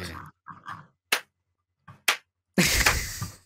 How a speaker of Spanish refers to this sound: me encanta ese aplauso.